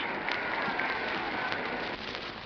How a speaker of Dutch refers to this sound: op het ogenblik, u hoort aan dit gejuich, er is